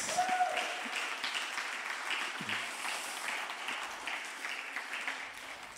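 An audience applauds an audience member praised for interpreting the Old Testament, steadily for several seconds: a dense wash of many hands clapping at an even, moderate loudness, with faint voices and a brief whistle-like tone early on.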